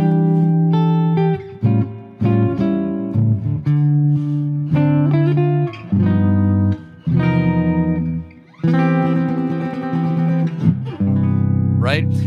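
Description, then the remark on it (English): A chord progression going from 3 and 6 to 5 is played as a ritardando ending: sustained chords on an instrument, each change arriving a little later than the last as the tempo gradually slows, settling onto a final held chord. “Now, another fundamental ending that you can do that is really simple, it's just simply to do a ritardando on the way out so that you're slowing down.”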